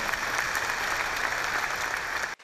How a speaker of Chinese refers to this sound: 我们再给爱多美公司一个热烈的掌声鼓励一下。